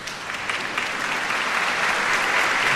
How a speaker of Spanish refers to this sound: Y como ya es nuevo obispo, la asamblea de Menorca rompe en aplausos porque ahora el nuncio de su santidad va a acompañar a Monseñor Gerardo, porque ya es obispo, a tomar posesión de su sede